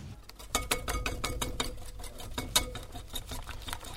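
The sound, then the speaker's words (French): A whisk beats crêpe batter in a bowl, giving a fast, steady run of metallic clicks and wet slaps at a moderate level, with no one speaking. “C'est ça Un fouet qui, bat quelque chose.”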